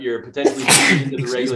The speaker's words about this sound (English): Bless you. Seasonal uh, allergies. I got them bad. I got them so bad. Worst in 10 years.